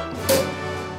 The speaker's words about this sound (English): can hear my ice clinking around in my iced coffee because it's a little bit early.